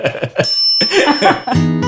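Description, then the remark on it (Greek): A small bell rings out several times in quick succession, bright, its metallic tone lingering and shimmering between strikes. “Μπορώ να σα απαντήσω πάρα πολύ γρήγορα και να. Με ένα καμπανάκι.”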